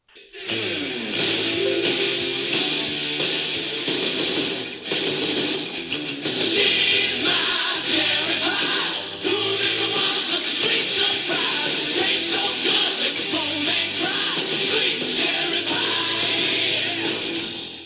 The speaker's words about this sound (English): which was the 1980s, and one of the hair band songs are we going to play it?